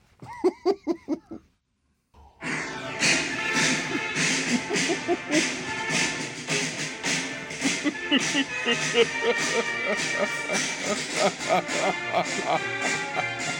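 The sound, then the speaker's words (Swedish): A brief burst of voice or laughter, a short pause, then a cheerful brass band melody with a bouncy tuba bass plays continuously just outside a window, played for students celebrating graduation from a music school, steady and fairly loud. “Det är så här, någon käck jävla orkestermelodi. det låter ju som att det är från en tecknad film.”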